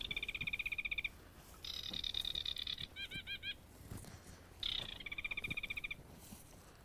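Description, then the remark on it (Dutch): Sedge warblers and reed warblers calling from the reeds in bursts of fast, rhythmic, chattering notes, repeated several times, clear, with no voices. “Ik hoor hier heel veel rietzangers en uh, eh, karakieten roepen, dus we gaan hier even proberen.”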